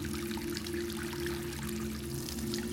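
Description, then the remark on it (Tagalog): At night, water scooped from a basin with a dipper pours steadily into buckets, a continuous splashing stream with a rising hollow tone as the container fills, with no voices. “Taguktok ng tabo sa paglapat nito sa pinakailalim ng batya at maging ang pagbuhos ng tubig sa mga timba.”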